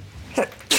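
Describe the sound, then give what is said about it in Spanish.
A sneeze bursts out loud, preceded by a sharp intake of breath, then a second forceful sneeze follows quickly at the end. “Salud.”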